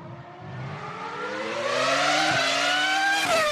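Max Verstappen's Formula 1 race car engine, in the first race of the new season in Bahrain, screams upward in pitch. Its whine climbs steadily with two quick gear-shift blips along the way, loud and continuous, with no voices.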